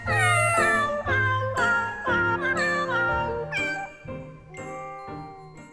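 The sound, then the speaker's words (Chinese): The pet kittens of the picture-book story 'Little Kittens' (小猫咪) meow over and over, high-pitched, whiny cries overlapping one another in a steady chorus of about six or seven calls, fairly loud, with no one speaking. “嗯，没错，这个故事当中的小猫咪们都是你的宠物了。”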